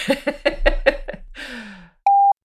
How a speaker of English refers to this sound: so I had the the same uh, sensation as here when we just heard the boat beeping, you know, and you hear the what's between the the beeps or the hoots. You hear the nature.